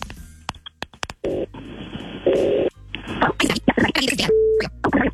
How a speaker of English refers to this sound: We're going to make the phone call right now and see who she wants to go to this romantic dinner with.